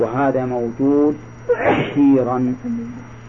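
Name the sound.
someone sneezing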